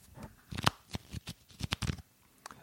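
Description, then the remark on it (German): A stack of wrestling trading cards is shuffled and riffled, producing a series of quick, crisp papery snaps and flutters in uneven bursts, with no talking. “Ich habe sogar hier liegen, Achtung, das ist der Sound von Wrestling-Sammelkarten.”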